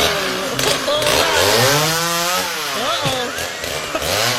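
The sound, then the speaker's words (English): A loud chainsaw-like cutting device runs steadily, its harsh buzzing drone rising and falling in pitch as it revs, with no talking over it. “Whoop, your baby's coming. Let me get the chainsaw out.”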